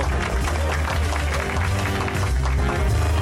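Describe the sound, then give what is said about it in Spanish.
A steady, dense wash of clapping welcoming three guests back, loud and continuous for a few seconds, with many hands blending into crackling noise and no voices on top. “Bienvenidos a los tres de nuevo, bravo. Aplausos”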